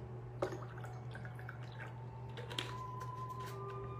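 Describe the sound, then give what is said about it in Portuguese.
Faint trickling and dripping of water being poured into a small cup, a few soft splashes and clicks over a steady low electrical hum, with no one talking. “Vamos orar agora, deixa eu encher mais uma vez o copinho, pedindo a Deus amparo, proteção, luz.”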